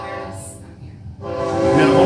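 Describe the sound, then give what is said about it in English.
A passing train sounds a long, sustained horn over a low rumble of rail noise, briefly easing off before blaring again louder. “Train Trek through.”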